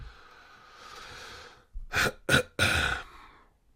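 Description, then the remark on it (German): A soft breath, then three harsh bursts of coughing and throat clearing in quick succession, fairly loud, with no talking. “Und gleichzeitig muss ich husten.”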